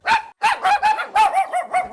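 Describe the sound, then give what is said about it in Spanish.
A dog barks rapidly and excitedly, about seven sharp yappy barks in quick succession, fairly loud, with no other sounds. “Espera, que te lo traduzco. Tu perro te dice que quiere Lenda”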